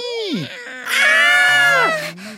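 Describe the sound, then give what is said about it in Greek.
A cat, Passpartout, up on a ladder, meows twice, first a short falling mew, then a longer, loud, drawn-out wailing meow that bends downward at the end. “Βρε μασκαρά Τι προσπαθείς να μου πεις Μη μη μη μη μη μη Μη μη πασπαρτού Κατέβα από τη σκάλα Σήμερα δεν μεταφράζεται το νιαούρισμά σου Δεν καταλαβαίνω”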